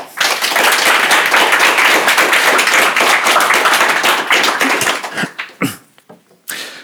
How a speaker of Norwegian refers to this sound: Gi dem en varm applaus.